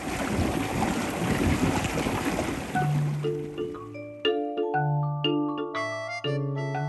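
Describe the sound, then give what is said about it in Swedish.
A sailboat's electric motors run with a steady mechanical roar in the engine room of the boat Night Train, cruising at seven knots, for about four seconds, then fade out as sustained, pitched tones take over. “observera alltså att det här är inspelat i själva maskinrummet dit man måste gå för att alls höra motorljudet.”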